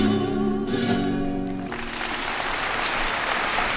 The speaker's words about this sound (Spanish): Ahí esos aplausos que están escuchando son los de las muchas personas que asistieron a ese concierto